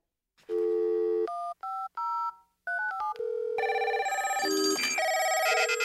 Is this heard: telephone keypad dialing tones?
yes